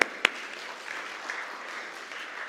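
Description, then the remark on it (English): A crowd breaks into a round of applause, opening with a couple of sharp, loud claps before settling into a steady, dense patter of clapping that carries on evenly, with no voices. “Okay, all right, guy, all right, give him a round of applause, all right?”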